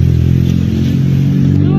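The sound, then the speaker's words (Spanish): A car engine runs loudly as the car moves, a steady low, throaty hum with rich harmonics that holds for a couple of seconds, with a faint clatter over it. “Mucho mueve mi carro.”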